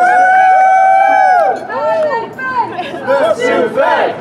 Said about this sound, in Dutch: Wat hoor ik daar allemaal? Eh, dat zijn eh, juichende mensen die voor het gebouw staan van de ABP, het grootste pensioenfonds van Nederland.